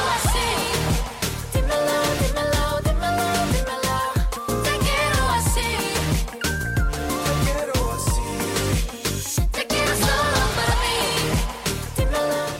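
A loud, upbeat K-pop chorus with Spanish-sung vocals over a dense, punchy backing of synths and driving beats, playing continuously for the whole stretch.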